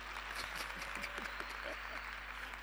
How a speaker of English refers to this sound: Can you clap now? This is why you're supposed to clap.